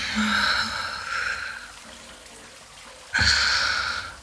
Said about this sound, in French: Je rentre dans la douche, tu me rejoins hmm.